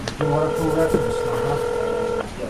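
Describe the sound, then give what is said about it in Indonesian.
A telephone touch tone, dialed to call a housekeeper, sounds as one steady, fairly loud electronic note lasting about two seconds, over a low murmur of background noise. “coba telepon Pires, pembantunya”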